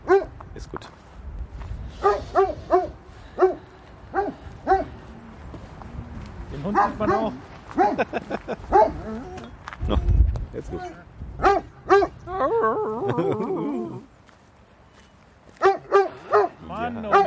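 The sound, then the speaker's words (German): A dog barks repeatedly in short, loud bursts, with a whining stretch in the middle, while people talk intermittently in the background. “Ich glaube, es ist einer unserer, treu ich glaube, es ist einer unserer treuesten Hörer. Der, nur, der hat uns einfach nur erkannt.”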